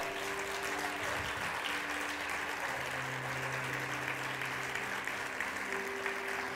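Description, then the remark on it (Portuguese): Steady, dense applause from a large crowd of worshippers clapping as thirty seconds of worship to the Lord, a continuous wash of clapping at even volume for several seconds, with faint sustained musical tones humming underneath. “Aplauda mais o Senhor.”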